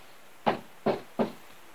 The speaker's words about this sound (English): That night, however, that night, however, while the court faced it, a loud knock sounded on the door.